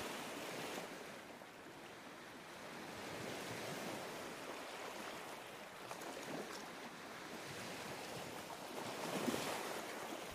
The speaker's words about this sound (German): Höre das sanfte Rauschen des Meeres. Stell dir vor, dass du dich an einem Ort am Meer befindest und dem Klang der Wellen lauschst.